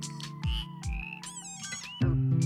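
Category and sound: animal, frog croaking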